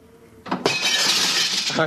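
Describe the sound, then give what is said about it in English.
A glass window smashes with a sudden loud crash, followed by a sustained bright spray of shattering, tinkling shards that lasts over a second. “Stop smashing those windows.”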